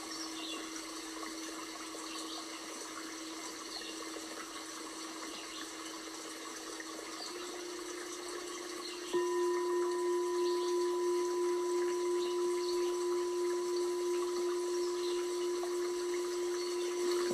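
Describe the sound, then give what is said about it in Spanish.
A river flows in a steady, continuous rush of water with no break, joined by a low sustained hum that grows a little louder about halfway through. “Estoy parada junto al río.”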